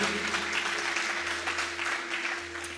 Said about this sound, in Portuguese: Vamos aplaudir o Senhor por essa palavra. Aleluia.